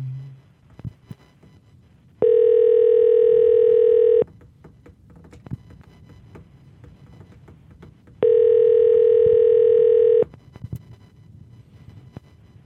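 A telephone call to a Miami Beach hotel rings unanswered: two long, steady, buzzing ring tones, each about two seconds, separated by a few seconds of quiet with faint clicks and low rumble in the background.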